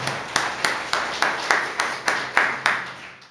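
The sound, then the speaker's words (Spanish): A group claps in steady unison, about ten sharp, even beats roughly three per second, fairly loud with a soft wash of sound between claps and no talking. “bueno, si quieren aplaudir, si Dios hagan.”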